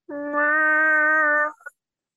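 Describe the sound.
A voice imitates a wounded animal's wail: a single loud, strained cry held steadily for about a second and a half, ending with a brief clipped yelp.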